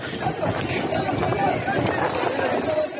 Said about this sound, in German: Was Sie hier jetzt hören, das sind Bewohner, die versuchen, die Flammen selbst zu löschen. Mittlerweile ist das wohl gelungen